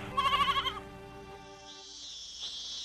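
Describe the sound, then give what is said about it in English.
A goat far away lets out one quavering, trembling bleat that starts strong, then trails off into a drawn-out, fading tail, followed by soft hissy background noise. “Then he hears a familiar voice from far away.”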